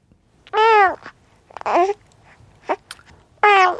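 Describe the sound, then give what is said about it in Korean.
A baby babbles and coos in short bursts, with a few high, harmonic vocal sounds separated by brief pauses, clear with no other talking. “어떻게 애기 옹알이 소리네요.”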